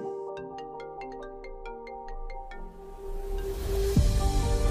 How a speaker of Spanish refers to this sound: Ahora no es la cafetera, es el teléfono que me despierta de esta reflexión.